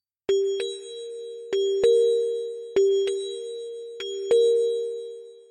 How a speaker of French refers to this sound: donc l'idée ici, c'est qu'on va écouter des groupes de trois notes. Les notes 2 et 3 seront toujours les mêmes, celles-ci.